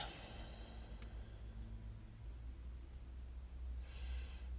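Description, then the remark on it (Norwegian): Slow, deep breaths drawn in and out through the nose, soft and airy, with a gentle rushing texture over a low background hum and no one speaking. “Myke, dype, rolig pust.”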